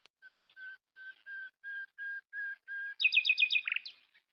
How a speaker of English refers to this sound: So those are the nightingales or los ruiseñores uh, that are mentioned in the song